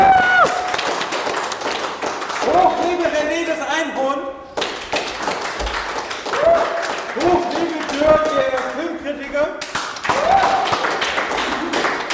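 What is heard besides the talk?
audience applause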